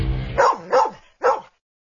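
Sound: search dog barking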